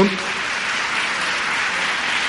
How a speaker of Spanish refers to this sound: Le damos un aplauso también para que vaya subiendo.